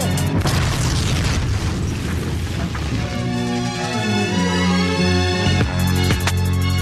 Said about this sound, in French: L'homme se fait exploser